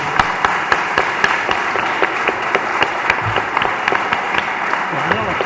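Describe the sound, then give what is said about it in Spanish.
An audience breaks into steady applause for two speakers, many hands clapping at once in a dense, continuous patter that holds at an even, fairly loud level throughout. “Bueno, yo propongo un aplauso para los dos expositores.”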